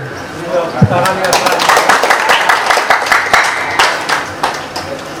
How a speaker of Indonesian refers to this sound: Patut bangga bisa tepuk tangan saya kira.